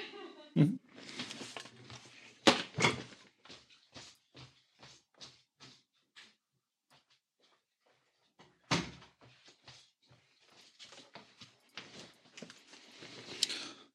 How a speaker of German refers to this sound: Äh, ich muss kurz mal die Tür zumachen. Einen Moment.